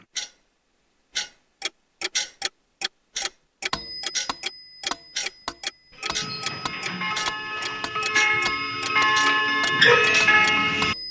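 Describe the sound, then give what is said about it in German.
Sharp, evenly spaced clock ticks start alone, then multiply and overlap until many clocks seem to tick at once, building into a dense, loud mechanical clatter with faint ringing tones. “Die Uhr zerschneidet die Zeit in messbare Abschnitte.”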